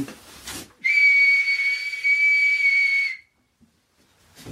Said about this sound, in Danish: Ja, det er fordi, jeg har en kat. Du har en kat? Ja, det hedder Kolo. Han har sin kattelette over, så hvis jeg fløjter, så han går.